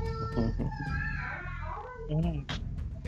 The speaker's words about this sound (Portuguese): Só a minha filha chorando, desculpa aí, tá?